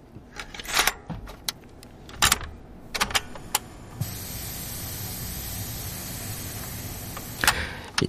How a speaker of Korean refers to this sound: 이게요, 카세트, 여러분들 기억나세요? 중장년들은 뭐 너무나 예, 추억의 물건인데 카세트 포터블 테이프 꺼내는 소리입니다. 예. 이게 오늘 보물소리예요.